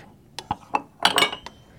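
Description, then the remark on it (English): A utensil scrapes and knocks against a jar as sourdough starter is scraped out into a bowl with water to make a leaven, giving several short clinks and a busier, scratchy scrape in the middle, fairly quiet with no talking. “So I've scraped all of that starter out of the jar and I'm putting it into the bowl with the water, and I'm going to add half a cup of whole wheat flour and a half a cup of white flour.”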